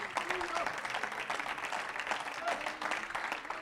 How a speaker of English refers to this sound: Oh, clap your hand to the Lord in Jesus' name.